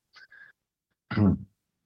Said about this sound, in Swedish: Ursäkta, jag har varit förkyld förra veckan så jag hostar ibland.